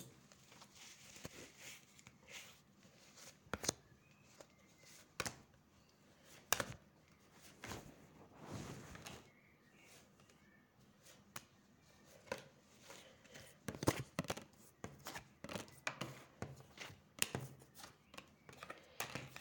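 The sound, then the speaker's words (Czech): Tarot cards being handled and shuffled for a tarot reading about a partner, with irregular soft slaps, rustles and sharp little clicks scattered across the stretch, some bursts louder than others, and no voices. “A já už se dívám na vaše fotky, držím v ruce karty.”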